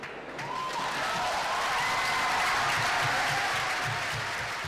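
Delegates in Rome clap and cheer after the vote adopting the statute for the world court, passed with 120 of 148 delegates in favour, with Benjamin Ferencz joining in, in a sustained, dense burst of applause that holds steady and loud throughout, with scattered voices rising within it.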